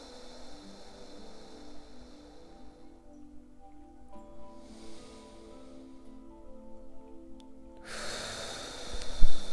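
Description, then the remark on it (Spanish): A long, slow, deep breath during a meditation exercise, taken while gazing upward above the eyebrows, swells into a loud, airy exhale near the end, over a soft, steady hum of sustained tones with no talking. “Y ahora llevo mi mirada por encima de mis cejas, simplemente llevo a mirar hacia arriba y continúo con mi respiración.”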